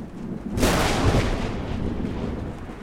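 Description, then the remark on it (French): A sudden loud crack of thunder breaks out from a violent storm directly overhead, then rolls on in a deep, sustained rumble that slowly fades, with no voices present. “le bruit du tonnerre, de la pluie battante et des bourrasques est effrayant”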